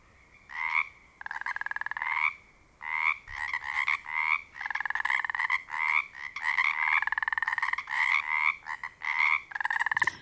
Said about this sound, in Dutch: En ik heb voor, om die eh, intro te kunnen maken heel wat kikkergeluiden beluisterd dan zitten er heel veel geluiden tussen en die klinken echt als ribbit, ribbit en niet als kwaak.